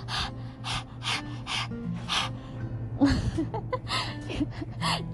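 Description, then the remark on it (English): A voice performs the breathing part of a song, a run of sharp, rhythmic breaths, five quick huffs in a row, then a rougher, more uneven string of breathy puffs over a low steady hum. “Oh, it's the breathing part, right?”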